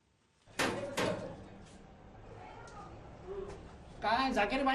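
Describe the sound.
Two firm, close knocks on a door in quick succession, followed by a quiet room tone before a voice starts speaking near the end.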